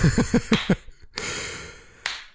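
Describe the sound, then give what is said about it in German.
A high-five hand clap: two sharp, crisp slaps spaced about a second apart, preceded by a quick run of short, soft thumping pulses. No voices are heard. “Dankeschön für das schöne Gespräch. High five.”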